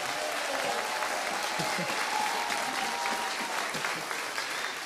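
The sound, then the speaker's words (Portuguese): A church audience claps steadily to welcome a grandmother, a dense, continuous wash of many hands applauding at an even loudness for about five seconds, with faint voices mixed in. “Ô, pastor, pede palmas.”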